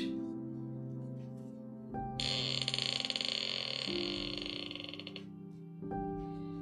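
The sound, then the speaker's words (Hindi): An old door of the second house in Resham Gali creaks open in one long, drawn-out groan, its rasping, stuttering tone shifting pitch over several seconds, fairly loud, with no voices. The door is opened only about once every six months for cleaning. “ये आवाज थी रेशम गली के दूसरे मकान के एक पुराने दरवाजे के खुलने की जिसे बस साफ सफाई के लिए हर छह महीने में एक आध बार खोला जाता था”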